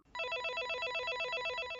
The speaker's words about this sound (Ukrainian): Це звук домофона.